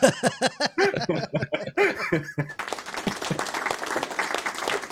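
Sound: applause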